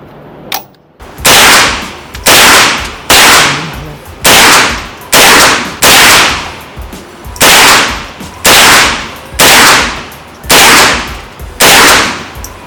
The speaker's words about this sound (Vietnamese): sau lần thứ hai bắn thì anh có cảm giác như thế nào cái mùi thuốc súng phê lắm cái mùi thuốc súng rất là phê luôn